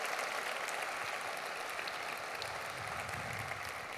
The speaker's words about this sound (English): Before going further, I want to thank our members of County Council who are here today for being here, as well as mayors and council members from throughout Cuyahoga County. Give them a round of applause for how they work.